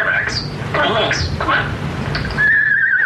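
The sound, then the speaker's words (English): Rex, a starling at a laboratory at the University of North Carolina, whistles a wavering, tuneful melody (Dixie) in short phrases, ending on a long sustained high note, with a soft background hum underneath. “The first talking animal is Rex the starling. Whistle Dixie and mimic the voices of his human companions at a laboratory at the University of North Carolina.”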